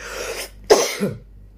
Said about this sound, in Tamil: cancer போல இருக்கு இருமல் வருது